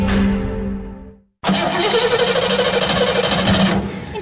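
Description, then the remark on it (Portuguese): A truck engine whines down and cuts out, then after a brief silence a loud, rough cranking roar surges back as it tries to start, sputtering. “Vou ali ao Milênio ver se mete a andar. O quê? O caminhão?”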